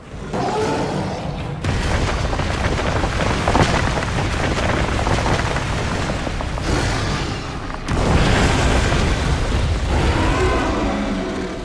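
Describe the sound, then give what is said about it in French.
In a video game, a huge Brachydios monster in its den pounds the ground over and over to shed the slime from its body, each heavy booming impact blending into a continuous, thunderous rumble. Loud, with no voices. “Le truc, c'est qu'une fois entré dans sa tanière, le tempête perd patience et se débarrasse de toute la poisse de son corps en frappant violemment le sol à plusieurs reprises.”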